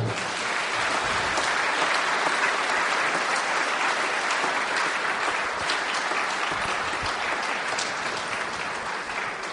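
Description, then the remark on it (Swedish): A church audience applauds new members steadily for the whole stretch, a dense, even wash of many hands clapping at a fairly loud level, with no voices breaking through. “Ska vi ge dem en varm applåd?”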